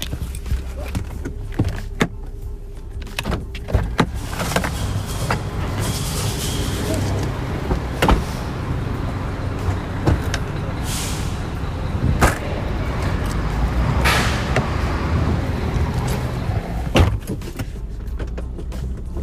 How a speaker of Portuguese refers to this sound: Tem que abrir o porta-mala aqui pro cara ver que não tem ninguém dentro do meu carro. Pera aí.